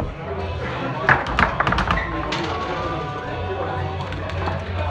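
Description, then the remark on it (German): A quick burst of sharp knocks and clacks from a table football game at a tournament, the ball and rods rattling for a second or two over a steady hum of background voices. “ich berichte hier vom Tischkicker-Turnier im irrealen Ollendorf”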